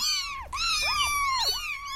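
Several high, thin kitten meows overlap in quick succession, rising and falling calls repeated without pause, as if the kittens are crying for their mother.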